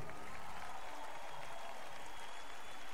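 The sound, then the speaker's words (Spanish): An audience claps steadily as applause to the Lord, in a dense, continuous burst, loud and sustained throughout with no pauses or voices rising above it. “Dale un aplauso más fuerte al Señor.”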